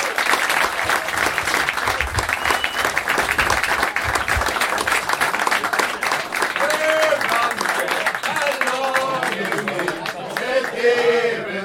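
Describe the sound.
Steady, loud applause from an audience fills the whole stretch, a dense rush of many hands clapping, with cheering and voices rising over it toward the end.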